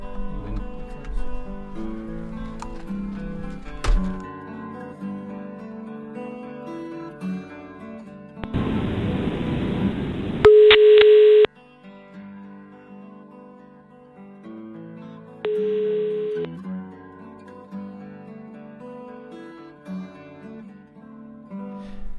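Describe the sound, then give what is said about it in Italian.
A burst of line static gives way to a mid-pitched telephone busy tone after a call with a guest drops during the radio show Wi-Fi Area, sounding in two separate beeps over steady background music, with no talking. “Ecco, scusa, siamo, abbiamo fatto un errore, è caduta la chiamata.”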